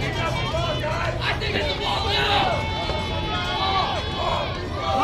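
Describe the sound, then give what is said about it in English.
A crowd of Lobos softball fans yells and cheers from the stands during a softball game, screaming "ball" when a pitch is called a ball, voices rising together in a loud, sustained roar of shouting over general chatter. “You can hear the Lobos fans passionate about their softball team, screaming ball every time there's a ball.”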